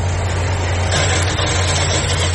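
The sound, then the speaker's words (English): A vehicle engine idles with a steady low rumble amid continuous street traffic noise, loud, with no voices heard. It is on a street in Binghamton outside the Binghamton Now building, near the intersection of Court and State Street, where utility work is being done. “a traffic note. We take you to the scene.”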